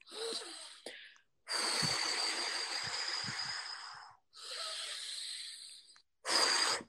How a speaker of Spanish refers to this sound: De hecho, siempre doy la misma pauta y es centrarnos en exhalar. Cojo aire por la nariz